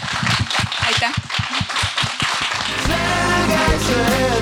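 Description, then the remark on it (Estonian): An audience claps for itself and the panelists in a dense, steady burst of applause for a couple of seconds, then music with sustained tones rises and carries on over the fading clapping. “teeme nüüd suure aplausi iseendale ja meie panelistidele, suur aitäh.”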